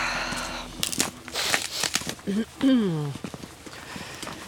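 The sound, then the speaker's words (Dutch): Footsteps crunch across ice in a quick, irregular run of brittle, crackling steps, fairly loud, before a voice briefly speaks. “is leuk om over ijs te lopen.”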